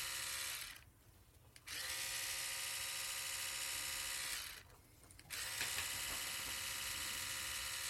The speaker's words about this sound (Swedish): Hur fan får jag för mig att spela in en, hur, hur det låter när en katt liksom dricker vatten?